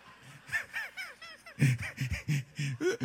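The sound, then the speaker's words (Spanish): A person imitates with their voice the small propeller plane they took from San Andrés, a run of rapid, warbling, honk-like pulses, about a dozen in quick succession, swooping in pitch. “de San Andrés agarramos una avionetica que parecía que se iba a caer, iban dos ángeles jalándola y uno de ellos estaba medio dormido, y entonces la, la avionetica hacía, y tú decías, ¡ay, santo!”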